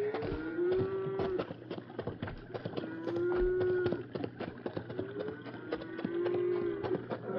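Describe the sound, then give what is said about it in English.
A herd of cattle being herded by men moos in long, drawn-out calls, roughly four in sequence, over a busy background of hooves clattering and shuffling as the herd moves past. “You hear that herd of cattle?”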